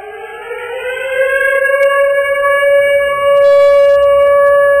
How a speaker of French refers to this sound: Ah, j'ai envie qu'on fasse jouer la, sirène du couvre-feu, une petite sirène de guerre pour nous mettre dans le mot de samedi.